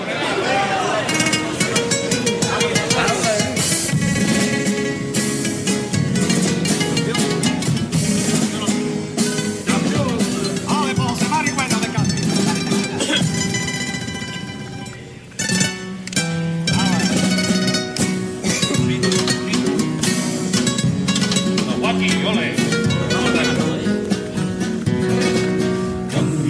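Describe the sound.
A carnival choir sings a pasodoble in full harmony over strummed guitars, loud and close, the melody flowing continuously with a brief pause midway before the voices swell again.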